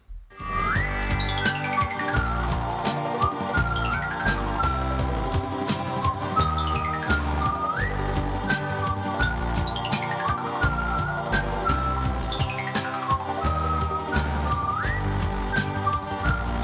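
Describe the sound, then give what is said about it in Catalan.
A whistled tune with sliding, swooping notes repeats its phrase every few seconds over a loud, full instrumental backing, steady and upfront with no talking. “Com deies, cançons xiulades”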